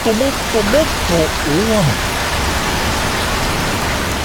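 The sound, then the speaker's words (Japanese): Heavy rain pours down in a steady, dense hiss that fills the whole clip, with brief wavering vocal sounds rising over it during the first couple of seconds. “これくらい降っても頑張れる商品があります”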